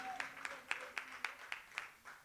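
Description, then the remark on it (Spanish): A church audience claps for the Lord in a morning service, a steady rhythm of about eight sharp, even beats in two seconds, with a soft wash of crowd noise between the claps and no talking. “Más fuerte ese aplauso si es para el Señor.”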